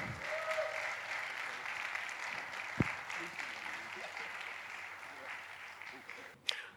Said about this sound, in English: Can you guys uh, give a hand